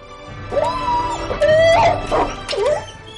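A dog wounded by an enemy spear whines and yelps in distress, a few drawn-out, pitch-sliding whimpers broken by sharper cries, fairly loud with no one speaking.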